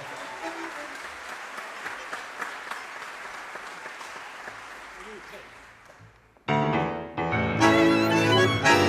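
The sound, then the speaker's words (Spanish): An audience applauds the tango orchestra of maestro Víctor Lavallén after it is introduced, clapping steadily for about six seconds and thinning slightly before loud, bright instrumental music abruptly starts and takes over. “Un aplauso, por favor.”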